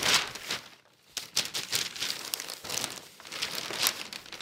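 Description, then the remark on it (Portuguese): Pages of a paper newspaper rustle and crinkle in quick, irregular bursts, crisp and papery, with a brief lull early on before the handling picks up again. No one speaks. “É um jornal, claro, de papel.”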